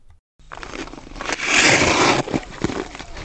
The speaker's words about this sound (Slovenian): Tole je zvok drsalk, ko se Gregor Kebes dolenega jezera ustavi na robu v ledeni oklep odetega